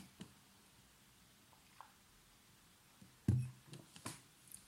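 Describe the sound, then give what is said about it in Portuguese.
Quiet sipping and swallowing of water: a few soft mouth clicks, then a short low gulp followed by wet smacking sounds, with no talking. “Ai, tenho que beber um bocadinho de água. Peço desculpa àquelas pessoas sensíveis a estes sons.”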